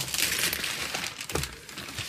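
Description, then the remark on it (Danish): Continuous crinkling and tearing of paper and tape as a hard, taped gift package the size of a shoebox is unwrapped, fairly loud, with brief rips and rustles over about two seconds and no talking. “Det, det ligner en skotøjsæske. Ja. Den kan godt pakket ind med tape her.”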